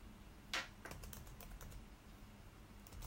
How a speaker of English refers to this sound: Uh, I'm typing scandal. Give me a second.